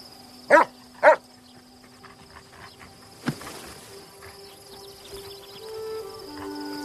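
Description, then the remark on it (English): In a scene from a film, the dog Bailey gives two sharp barks in quick succession, then falls quiet while a steady chorus of crickets hums in the background. “Still think you got one in you, boss dog?”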